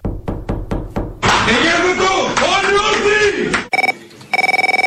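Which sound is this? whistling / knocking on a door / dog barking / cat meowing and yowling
knocking on a door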